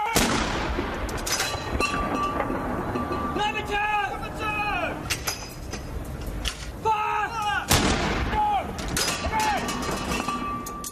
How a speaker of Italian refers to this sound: Quelle che stiamo ascoltando sono le salve di cannone che ieri hanno salutato a Londra l'89 compleanno della regina Elisabetta II